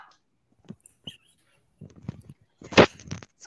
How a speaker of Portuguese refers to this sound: Desculpa, gente, meu cachorro um pouco agitado.